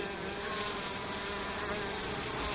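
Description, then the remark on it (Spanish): A dense, steady buzzing of an approaching swarm of bees fills the scene, continuous and fairly loud with a wavering drone, no voices present. “Los furtivos, confundidos, escuchan cómo el zumbido de las abejas se acerca.”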